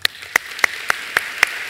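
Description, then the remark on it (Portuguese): A short run of sharp, evenly spaced claps, about seven in steady rhythm, crisp, over a faint background hiss with no talking. The clapping applauds the words 'You are the Son of God' read from scripture. “Vamos aplaudir o que esses demônios falaram?”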